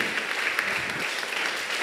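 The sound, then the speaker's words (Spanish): A standing audience applauds steadily to welcome a guest teacher, dense overlapping claps forming a continuous, fairly loud wash of sound with no talking over it. “Así que le, quiero que nos pongamos de pie y recibamos con un fuerte aplauso a nuestro amigo, el maestro”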